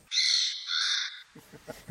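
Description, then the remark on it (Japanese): Two harsh, raspy calls of a Lidth's jay in quick succession, loud, in a primeval forest on Amami Ōshima, Japan, during a guided forest walk, followed by a person starting to speak. “今ギャギャっていう声これが奄美を代表するルリカケスの鳴き声ですルリカケス世界の中でもこの島にしかいない鳥ですちょっと青くて羽の部分が赤いカラフルな鳥ですね、ね、とっても綺麗な色合いですが、うん、鳴き声は最悪”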